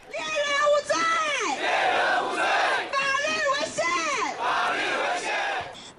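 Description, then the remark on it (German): A crowd of indigenous protesters in front of the supreme court chants the slogan "Jäger sind keine Verbrecher" (hunters are not criminals) in unison, loud rhythmic shouted phrases repeated in two bursts with rising and falling pitch. “Jäger sind keine Verbrecher, skandieren die Demonstrierenden, stellen Jagdtrophäen aus, zünden Bergkräuter an.”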